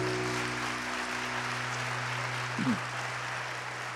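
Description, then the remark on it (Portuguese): An audience applauds the Lord in a steady, dense wash of clapping that holds evenly for several seconds, with low sustained keyboard tones humming underneath and no voices. “Se você quiser oferecer um aplauso ao Senhor, vamos ficar de pé.”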